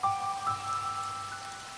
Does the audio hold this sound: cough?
no